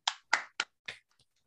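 A brief burst of applause welcoming a guest on the sports show Tiro Abierto: four loud, sharp hand claps in quick, slightly uneven succession, followed by a couple of faint trailing claps. No voices are heard.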